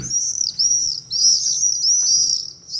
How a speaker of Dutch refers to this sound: Ja, dat is de gierzwaluw.